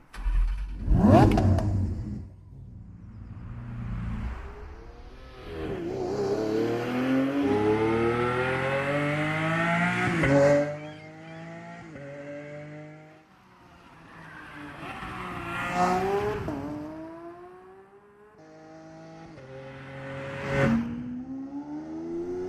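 A Lamborghini sports car engine revs hard through a series of rising gear pulls, each climb cut by a shift, loud, with a sharp burst at the start and no voices.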